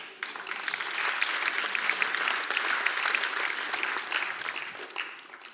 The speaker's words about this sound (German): Gib mal den Timo einen Applaus.